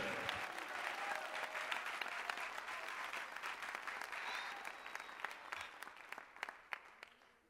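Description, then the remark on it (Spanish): A church audience applauding the King (God) during a sermon, a dense wash of many hands clapping that gradually thins out toward the end, leaving scattered individual claps. “Dale más fuerte ese aplauso al rey.”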